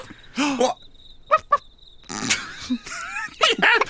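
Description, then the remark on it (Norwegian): A dog barks and yelps in short, sharp bursts, two quick barks in the middle among other squealing cries, with a faint, steady high-pitched chirping behind. “Det er en hund!”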